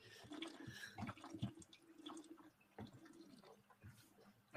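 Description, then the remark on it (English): Drinking from a jug: water sloshes and glugs in a series of uneven gulps and swallows, fairly quiet, with a sharper clunk right at the end and no one talking. “I'm gonna I'm gonna uh, drink some water.”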